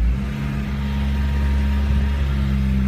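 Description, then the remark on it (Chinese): The engine of a Jeep Compass with a 2.0-litre engine and CVT gearbox drones loudly and steadily as the car climbs an underground car park ramp, a deep, low hum with a strained, labouring tone, holding an even pitch as if pulling hard without gaining speed. No one speaks. “大家刚刚听到的是，这车呢爬地库的坡，干吼不走这个词啊，在这辆指南者上面体现的是有些淋漓尽致。”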